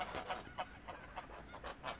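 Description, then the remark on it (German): A small flock of geese honks in quick, repeated nasal calls, about four per second, fairly soft, with no voices. “Wiederum betrachtete er die Gänse. Diese lustig vorlauten Footballtiere, diesmal mit etwas Neid.”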